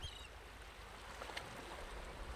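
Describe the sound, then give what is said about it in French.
Soft, steady wash of small waves lapping at the shore of a beach on a sunny day, washing over the feet, a continuous low rush with gentle swells and faint splashes, with no voices. “Nous sommes aujourd'hui sur la plage. Le soleil brille et les vagues lèchent mes pieds.”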